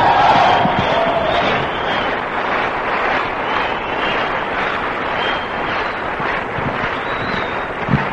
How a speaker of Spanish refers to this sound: Un aplauso por favor para todos ellos.